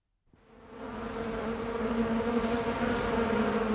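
A steady, dense hum of many honeybees at a beekeeper's in late July in warm weather, busily collecting for wax, swelling in quickly after a brief silence and holding a continuous droning tone, with no voices.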